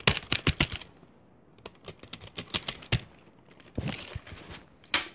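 Rapid, uneven clicking of keys on a computer keyboard, done as ASMR, fairly loud, coming in quick bursts with short pauses between them and no voices.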